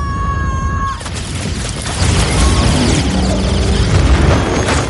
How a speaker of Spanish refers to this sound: Se acerca una nave. Corre esquivando los disparos de la nave. Está pilotada por Nebula.